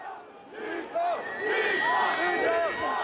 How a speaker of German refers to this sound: Kaum näherte sich Helmut Kohl dem Rathaus, setzte ein Pfeifkonzert ein, skandierten Jugendliche Lügner, Lügner, flogen Eier, detonierte eine Leuchtrakete in der Menge.